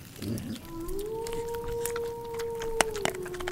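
A single long wolf howl rises briefly, then holds a steady mournful pitch for a few seconds before trailing off, heard alone over faint background noise.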